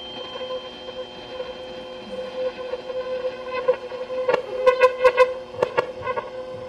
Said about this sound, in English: this is a tuning fork for music, and it actually is 512. That's a middle C, I think. It's actually about the speed of a mosquito. So you can hear it now, but now I can't hear it anymore, at I'm a little bit deaf, and you can.